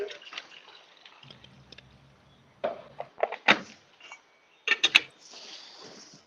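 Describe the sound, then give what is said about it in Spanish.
Water is poured over ground coffee in a Chemex paper filter in short, uneven splashes, with a few light knocks between them, then settles into a soft, steady stream at the end. No one speaks. “Yo le echo agua aquí.”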